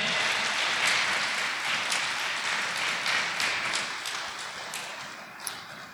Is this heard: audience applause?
yes